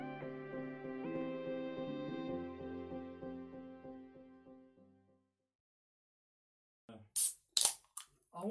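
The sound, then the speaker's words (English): Sustained musical tones fade out into a brief silence, then a drink is cracked open: a few sharp, hissing bursts of fizz, with no talking. “the fizz.”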